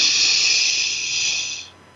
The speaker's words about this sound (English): Let's take one more. Breathing in through the nose.